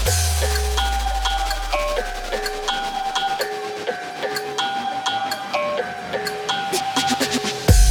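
A dance music track plays loud and steady: a bright, bell-like synth riff repeats in short stepped notes, with a deep bass swell fading out at the start. No one speaks.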